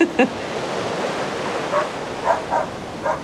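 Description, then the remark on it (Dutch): Steady, broad rushing surf from ocean waves on a beach in Bali, with a handful of short dog barks from the dogs Bakso and Billy, out on a walk, breaking through the wash now and then. “Zo, ik ben nu op het strand.”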